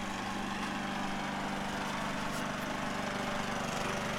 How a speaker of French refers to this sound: Et là il y a une dame qui passe sa tondeuse.